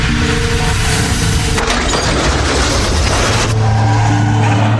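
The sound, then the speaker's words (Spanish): A loud car collision as a driver, braking hard at about 60 km/h on a road with a 50 km/h limit, crashes into a car: a sustained crunching, splintering roar of impact with a sharp break partway through and a second surge of grinding noise near the end. No voices. “En este punto se fracturó el cuello, luego de chocar con el carro.”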